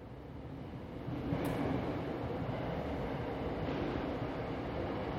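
A subway train rumbles through a subway station, a steady low roar that swells after the first second and stays loud until the end, with no voices.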